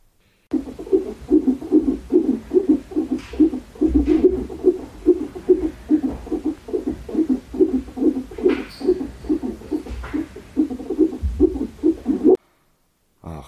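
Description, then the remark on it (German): A fetal heartbeat picked up by a doppler monitor, a rapid, steady whooshing thump repeating about twice a second for roughly twelve seconds, muffled, with no voices. “Für die, die nicht wissen, was das sein könnte, das ist der Herzschlag von unserem Baby.”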